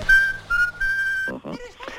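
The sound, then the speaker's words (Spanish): Someone whistles a short melody in a few clear, sustained notes, steady, and then a voice starts talking just as the tune ends. “Te esperaré en la puerta de tu casa y te avisaré silbando nuestra canción.”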